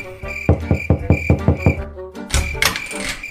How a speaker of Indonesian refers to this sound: Nenek mengetuk pintu kamar Doni.